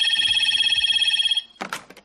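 A telephone rings with a rapid, continuous high-pitched electronic trill for over a second, then stops; a brief clatter follows, like the handset being picked up.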